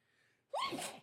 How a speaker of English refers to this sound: Ooh, excuse me. Woo. My bad about the sneezing